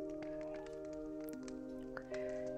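A quiet campfire crackles with scattered, irregular pops and snaps over a soft, steady tonal hum that sounds like gentle background music.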